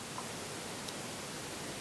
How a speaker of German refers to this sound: Wir nehmen die aufgenommene Stille und machen sie lauter. Und horchen in das Rauschen.